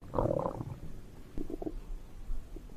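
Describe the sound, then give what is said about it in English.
A stomach grumbling in two gurgling bursts, a longer rumble followed by shorter bubbly churns, quiet with no talking. “Uh, it, that's my stomach grumbling.”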